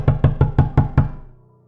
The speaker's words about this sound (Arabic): صوت خبط عالي غطى على كلامه الصوت ابتدى يوطى لحد ما بقى دقات خفيفة